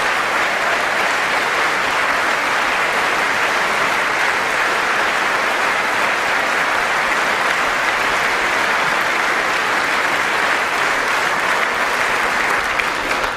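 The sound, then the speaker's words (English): Sustained applause from a large crowd in a chamber during a political speech, right after a line that nearly 5 million Americans have been lifted off food stamps. It is a steady, dense wash of clapping that stays loud and even for over thirteen seconds without any speech over it. “Watch who's clapping.”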